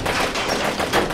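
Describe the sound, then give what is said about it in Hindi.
A dense burst of rapid gunfire from a man firing his gun at another man, shots blurring together into a continuous, loud rattle that holds steady for about a second, with no voices. “उसने बिना सोचे समझे अपनी बंदूक उठाई और सामने अजय की तरफ फायर करना शुरू कर दिया ये सब इतना जल्दी हुआ कि अजय को संभलने का वक्त ही नहीं मिला उसने जैसे तैसे अपने आप को बचाया मगर गोलियों की बौछार बंद ही नहीं हुई”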